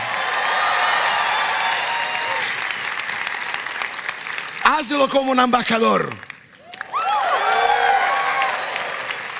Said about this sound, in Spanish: Hazlo fuerte este aplauso.